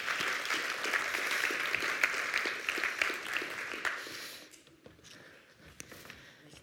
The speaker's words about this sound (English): Um, and that it's my privilege to welcome my dad to the stage. Will you give him a clap?